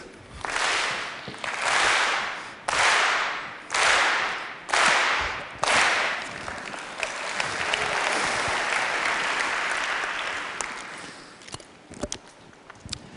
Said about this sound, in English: So let's say I am here and the chair is my rival, okay? So I walk, you clap, everybody in unison,